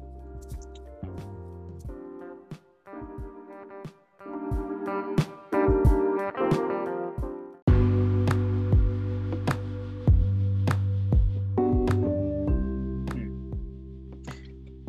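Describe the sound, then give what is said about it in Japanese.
A gentle instrumental stretch of a song, a cover of a film soundtrack piece, plays on its own, with sustained bass notes, bright plucked or struck accents, and a fuller, louder section kicking in midway. “これもあの、これもカバー曲で、映画のサントラからのカバー曲なんですけど、うん、このアルバムはもう全部いいですね。”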